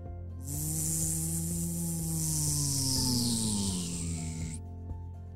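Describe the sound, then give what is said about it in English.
A delivery drone carrying two containers of soap buzzes steadily overhead in the sky, its motor whine shifting slightly in pitch over a hissing rush of rotor noise, lasting about four seconds before cutting off abruptly. “It was just then that they looked up and heard the sound.”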